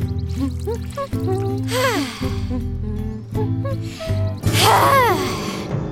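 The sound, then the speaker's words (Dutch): Water pours in two short gushing bursts over a bright, bouncy musical backing as plants are watered, the second splash louder and longer than the first. “Water, water, water voor de plantjes.”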